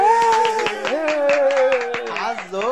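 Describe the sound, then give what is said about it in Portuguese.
Scattered, irregular handclaps from hobbit guests at an 81st birthday speech ring out over a steady wavering voice that holds a drawn-out tone, the claps sharp and moderately loud throughout the short burst. “Aplausos.”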